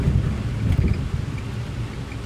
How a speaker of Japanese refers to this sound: 雨の日怖いわ停止線が分かんなくて今私信号無視しましたね